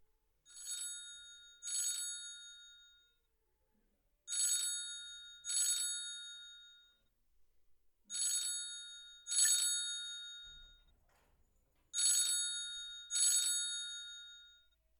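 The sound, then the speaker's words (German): A telephone in a well-known phone booth in London rings in the classic double-ring pattern, four pairs of bright, metallic trills with short pauses between, heard clearly with no voices. “Oh, es klingelt schon wieder.”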